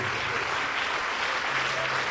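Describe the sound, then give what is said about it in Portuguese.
A crowd applauds the Lord Jesus with joy, a dense, continuous wash of clapping at an even volume throughout, with a faint low hum underneath and no voices standing out. “Isso, vamos aplaudir o Senhor Jesus, vamos aplaudir com alegria.”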